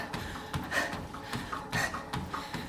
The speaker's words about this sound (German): Wenn man die Augen schließt, ist alles ruhig, zeitlos, endlos, ewig. Nur wir schnaufen laut.